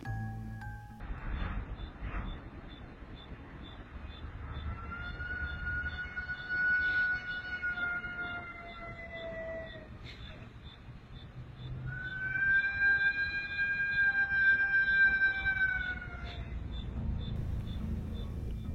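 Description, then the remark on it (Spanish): An eerie, drawn-out wail rises and slowly fades twice, each long mournful cry sustained for several seconds over a steady low rumble, with no one speaking. “Pero hoy vamos a escuchar estos en donde tal vez nos estremezcamos por este lamento Mm, tan profundo que nos da la llorona.”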